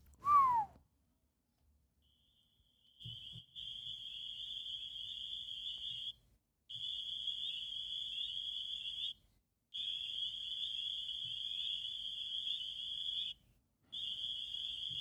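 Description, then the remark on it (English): A shrill, steady cricket-like trill made by a musical instrument in a music track sounds in long stretches with brief pauses, after an opening descending swoop, with a faint low rumble beneath and no voices. “What kind of instrument do you think they use to make the cricket Fuck sounds?”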